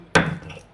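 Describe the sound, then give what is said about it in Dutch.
A single sharp, hard knock as a heavy stone mortar is set down or bumped, with a short ringing decay and no voices. “Want deze uh, uh, noem je zo'n vijzel, die vijzel, die heb ik dan weer van een vriendin van mijn moeder gekregen.”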